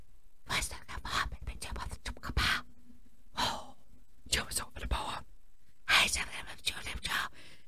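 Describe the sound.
A voice imitates barely audible whispered movie dialogue, a run of breathy, hushed syllables in short bursts with brief pauses, quiet with no clear words.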